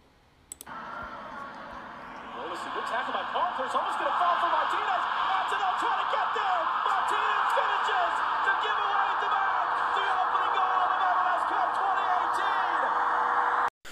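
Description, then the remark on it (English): A crowd of almost 73,000 at Mercedes-Benz Stadium erupts after the first goal of the MLS Cup soccer match. The roar swells within a couple of seconds into a loud, sustained wall of cheering and shouting voices with scattered sharp whistles. “What you just heard was a recording from the first goal scored by Josef Martinez in MLS Cup in front of”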